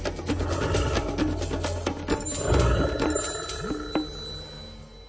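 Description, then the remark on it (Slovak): A brown bear growls in deep, rumbling bursts, fairly loud, with scattered sharp clicks and rustling around it and no one speaking. “Keďže na Slovensku žije odhadom 600 až 800 jedincov medveďa hnedého, stretnutie s týmto kráľom lesa nemusí byť v pohoriach stredného, severného a východného Slovenska ničím výnimočným.”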